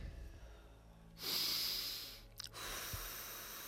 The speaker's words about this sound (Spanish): una respiración profunda y echa el aire.